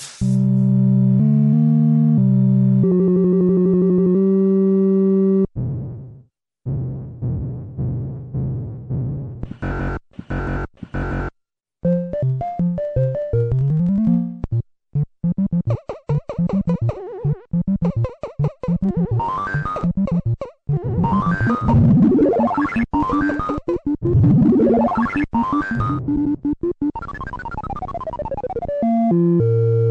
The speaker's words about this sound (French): Si je suppose que tu as reconnu cet extrait. De quoi s'agit-il Ah, je, je crains qu'il ne s'agisse euh, d'un extrait sonore de, de, Donkey Kong.